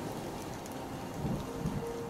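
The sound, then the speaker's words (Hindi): Light drizzling rain of the monsoon month of Sawan falls steadily, with a cold wind blowing, a soft continuous hiss with faint patter throughout and a slight swell in the low end near the end; no voices. “सावन का महीना था रिमझिम वर्षा हो रही थी ठंडी हवा बह रही थी”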